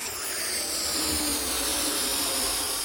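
Someone inflates a balloon: a steady, continuous rush of hissing air, fairly loud, holding evenly for a few seconds with no voices.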